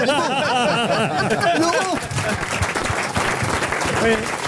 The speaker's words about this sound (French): Merci, vous pouvez applaudir Marc-Antoine Lebray.